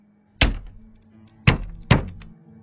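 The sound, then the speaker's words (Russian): A fist thumps three times on the glass of a house window in the dark, fairly loud, with a longer pause after the first blow and the last two coming quickly together. No one speaks. “Почти без всяких сомнений это был звук удара кулака по стеклу.”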